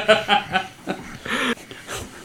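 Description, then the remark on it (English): A person imitates a dog with three quick barks in a rapid burst, then dissolves into breathy laughter and wheezing. “Oh, yeah, I'll just, just get a timer every five minutes, and one of us has to bark in allegedly.”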